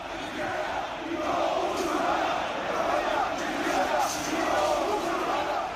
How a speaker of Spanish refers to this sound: Y en Madrid, disturbios frente a la sede del PSOE en Ferraz una noche más. Miles de ciudadanos se han manifestado contra la amnistía, con pancartas también contra la Constitución, gritos contra el rey y consignas racistas.